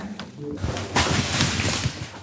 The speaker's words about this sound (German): Was hier so raschelt, sind die Blumen.